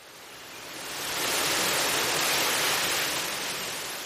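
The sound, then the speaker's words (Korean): A steady rush of wind shaking trees as a thunderstorm suddenly begins swells into a broad, hissing gust that peaks midway and eases slightly toward the end, with no voices. “나무들이 바람에 흔들리고 천둥 소리가 울리기 시작하자 커다란 공포에 휩싸였다.”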